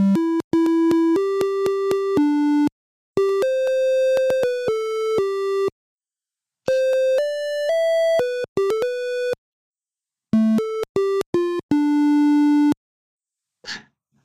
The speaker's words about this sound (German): ich habe mal, hab mal was mitgebracht. Ich habe mal was. Äh eingespielt, um mal zu zeigen, wie das dann klingt, wenn man ihn zum Beispiel zum Komponieren benutzt, äh, diesen mhm. Minicomputer.